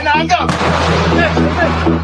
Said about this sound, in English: This is what life has been like in Nagorno Karabakh's capital, Stepanakert, for more than a week air raid sirens, and near constant bombardment.